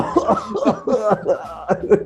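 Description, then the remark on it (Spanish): A rapid series of harsh, voiced coughs, six or so bursts in two seconds, fairly loud, a person deliberately acting out a coughing fit as a tactic against being robbed. “Imagínate, te van, a, asaltar saltar y tú ah, empezás a toser.”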